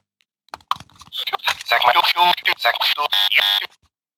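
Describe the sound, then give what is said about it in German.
A rapid flurry of button clicks as all the buttons are pressed, setting off a dense, overlapping jumble of loud electronic tones and voice-like device sounds for about three seconds before stopping abruptly. “drück, mal alle Knöpfe. Ich möchte mal hören, was dann passiert.”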